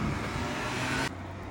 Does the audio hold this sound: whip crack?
no